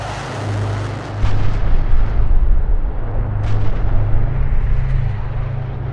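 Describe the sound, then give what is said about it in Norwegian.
A low droning rumble of a bomber aircraft approaching a village at night, joined by heavy booming bomb explosions that build into a sustained, loud, rolling roar with a steady low-pitched hum underneath. “Og en natt, mens Mohammed sover på et teppe i onkelens hus, nærmer et bombefly seg.”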